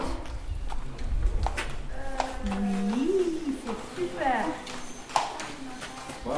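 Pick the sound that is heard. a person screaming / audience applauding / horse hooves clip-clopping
horse hooves clip-clopping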